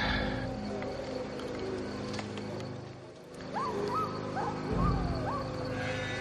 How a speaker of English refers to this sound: Oh, there we go. Oh god, yep, there's a wolf. Yep, there's a wolf.